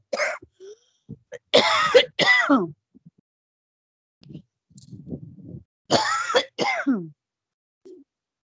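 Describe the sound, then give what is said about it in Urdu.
A woman with something caught in her throat clears it and coughs: two bursts of harsh throat clearing and coughing, each a pair of rasping hacks, separated by a quieter stretch of low throaty rumbling, with a small hoarse sound at the end, fairly loud. “معاف کرنا ذرا تھوڑا سا کچھ ہوا ہے گلے کے اندر ابھی میں سناتی ہوں”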